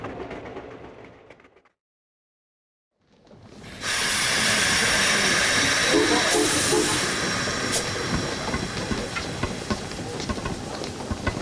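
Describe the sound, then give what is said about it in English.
A steam train hisses at a station: a low rumble fades to a brief silence, then a loud, sustained rush of steam swells up and holds steady to the end. “but this isn't the London train.”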